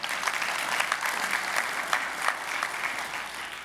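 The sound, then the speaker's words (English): An audience applauds steadily, many hands clapping in a dense, even wash of sound with small bursts of louder claps, no one speaking over it. “You can clap.”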